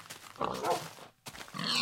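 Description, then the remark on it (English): A pink pig grunting in the video game Minecraft, a couple of short rough oinking bursts separated by a brief pause, clear with no talking. “That pig is so pink.”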